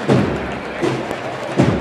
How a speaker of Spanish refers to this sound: Y que ahora golpe de tambor, fíjate Elena, también cómo avanzan, cómo entran de rápido los músicos.